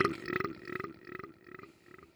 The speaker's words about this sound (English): You just flag me when you're going to burp